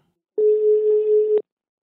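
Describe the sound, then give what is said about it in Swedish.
A single steady ringback tone sounds for about a second, a clear electronic telephone ring heard while an outgoing call to the international assistive-devices company Invacare connects, with silence before and after and no voices. “Så nu ringer vi Jocke och hör vad de har på agendan”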